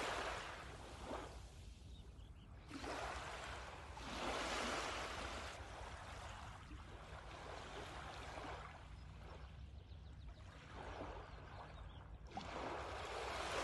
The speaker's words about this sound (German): Eine kleine Welle kommt auf dich zu mit leicht gekräuseltem Schaum und umspült deine Füße.